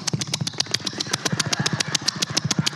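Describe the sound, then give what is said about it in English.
A voice imitates a pig grunting and snorting as it eats: a fast, steady run of rough, guttural pulses, almost motor-like in rhythm, with no words. “So if a pig makes that sound, you shouldn't.”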